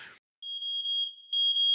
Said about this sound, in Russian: Внимание, пожарная тревога. Срочно покиньте помещение.